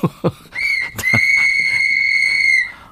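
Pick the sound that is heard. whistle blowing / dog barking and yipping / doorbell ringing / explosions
whistle blowing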